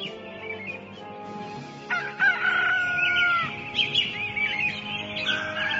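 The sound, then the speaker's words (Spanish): A rooster crows amid a steady chorus of chirping birds in the morning in fields near Verona, the calls overlapping and rising and falling in a lively outdoor scene, moderately loud. “se encontraba más despierto que cualquiera de las aves que recorrían esa mañana los campos cercanos a la bella población de Verona.”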